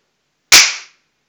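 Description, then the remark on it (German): A single sharp hand clap, loud and crisp, with a short ringing tail that fades within half a second. Otherwise silence, no voices. “Klatschen?”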